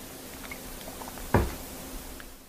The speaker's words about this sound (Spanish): Voy a beber agua.